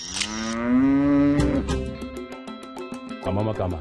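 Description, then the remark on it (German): A cow in South Africa moos loudly, a long rising low call, followed by rhythmic clicking or rattling sounds and background voices toward the end. “Aber die Währung macht Mu”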